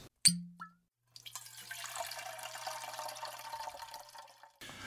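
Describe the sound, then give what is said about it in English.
A short clink of glass, then a homemade drink of almond milk and peanut butter whiskey poured steadily into a glass for a few seconds, splashing and gurgling, before stopping abruptly. “So, without any further ado, let's pour one out.”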